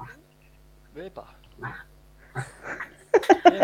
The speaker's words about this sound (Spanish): Tengo los perros haciendo la barra al lado.